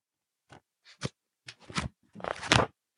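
Dry paper rustling and crinkling, a few short bursts building to a longer, louder crackle as the pages of a real paper book are handled, with no voices.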